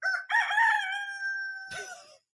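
A single loud rooster crow rings out, starting with a short rising note and stretching into a long, steady cock-a-doodle-doo that ends in a raspy break.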